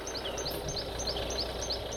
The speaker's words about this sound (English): That's the sound of wildlife roaming free in Africa.